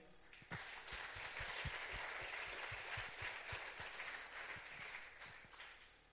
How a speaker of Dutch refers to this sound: En wat hebben we toch een heerlijke en goede aanbiddingsteam. Zullen we ze een applaus geven?